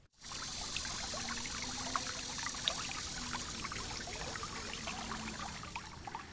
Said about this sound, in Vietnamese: Chính giữa hai hàng cây sừng sững là dòng suối chảy róc rách với những bậc đá nhỏ